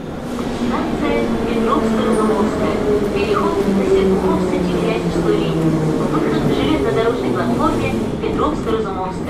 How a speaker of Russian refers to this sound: И, как обычно, я спрашиваю, какое место в Москве мы загадали сегодня. Но тут, на самом деле, конечно, все просто. Потому что это московское метро, но вопрос только, какая ветка?